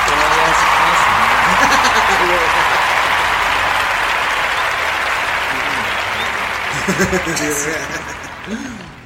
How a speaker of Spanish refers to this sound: Pues ya, pues felicidades a Cruz Azul, ¿no? Y a toda su afición, ¿no? Vamos a darles un aplauso a todos.